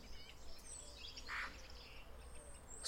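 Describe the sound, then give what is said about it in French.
Several birds chirp and sing together, their faint high calls overlapping against a quiet outdoor background, with one slightly louder call standing out briefly. “Les oiseaux chantent de concert, en vol brusque de pigeons, restés picorés sur le chemin.”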